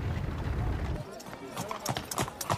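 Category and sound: animal, horse hooves clip-clopping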